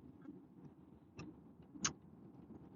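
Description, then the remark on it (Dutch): A low, steady rumble of a car interior on the move, fairly quiet, with two brief sharp clicks cutting through about half a second apart. “Want ik zit natuurlijk in de auto.”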